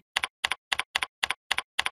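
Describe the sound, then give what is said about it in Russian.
Seven crisp keystrokes on a computer keyboard, each a quick double click of press and release, tapped at a steady, even pace with no talking, as an old password is typed into the first field of a password-change form. “Первое поле вводим старый пароль,”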